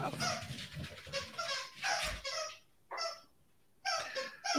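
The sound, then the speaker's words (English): Several loud bursts of excited dog whining and yelping from dogs at a house, high and strained, come in quick clusters with a couple of short pauses between them. “I got all kinds of stuff going on here at the house. Dogs going crazy and squeaky toys and whew.”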